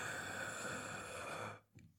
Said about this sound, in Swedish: ett djupt andning. In, in, in Väldigt djupt.